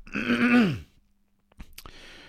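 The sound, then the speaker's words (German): A man clears his throat once with a loud, rasping, voiced rumble, followed after a short pause by a few soft clicks and a quiet breath. “Ja, ein bisschen ein Frosch im Hals heute, wie man merkt.”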